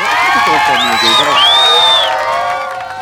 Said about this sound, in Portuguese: Aliás, palmas.